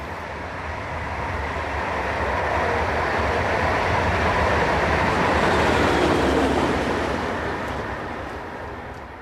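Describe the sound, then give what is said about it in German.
A train rumbles past at the former border railway station in Oebisfelde, Germany, a dense rolling roar of wheels and carriages that swells to a peak midway, then slowly fades as it moves off, with no voices. “Zweimal haben uns dort an dem ehemaligen Grenzbahnhof getroffen.”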